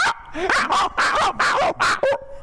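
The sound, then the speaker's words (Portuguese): A person imitates a small pinscher dog's yappy barking, pitched in the musical keys of C and D, about seven quick, high-pitched yips in a steady rhythm, loud, ending in a brief whine. “Não, faz faço... um cachorro menor. O pincher, o pincher em dó e o em ré.”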